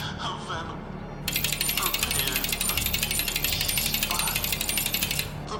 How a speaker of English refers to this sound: The little clicking sound persisted at my back,